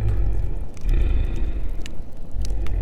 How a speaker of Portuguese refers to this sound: E aquele rugido gritou mais uma vez, só que agora ele parecia mais alto.